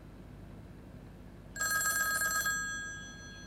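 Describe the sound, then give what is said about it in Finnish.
A single, fairly loud burst of an old-style telephone bell, a phone ringing on a Sunday after a doctoral dissertation defense: a rapid metallic trill lasting about a second before fading out against a quiet background. “Väitöstilaisuuden jälkeen sunnuntaina puhelimeni soi.”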